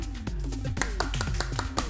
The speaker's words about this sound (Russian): Можно похлопать, Ура! сегодня здесь есть поддержка. Ура, я надеюсь, что наши воображаемые слушатели тоже в этот момент будут хлопать.